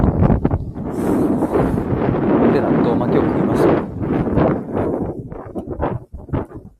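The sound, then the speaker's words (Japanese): Wind buffets the microphone with a steady, loud low rumble and gusty roar that runs under a person's speech, easing off briefly near the end. “風の音うるさいですね。”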